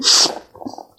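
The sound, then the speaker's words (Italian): A single loud sneeze bursts out with a sharp hissing burst, then trails into a quieter muffled vocal sound and a soft breath. “Salute.”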